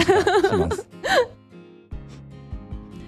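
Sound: young child crying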